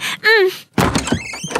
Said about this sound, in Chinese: 我把房间的门撞开